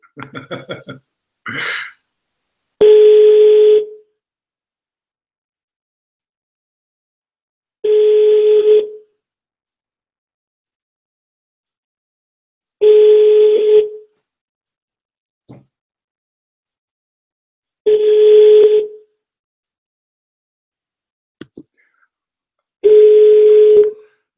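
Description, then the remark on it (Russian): A phone ringback tone repeats five times, each steady one-second buzz separated by about four seconds of silence, as a call to a leasing company goes unanswered; a brief breathy vocal sound comes just before the first ring. “Наверное, тут совсем ребята трубки не берут.”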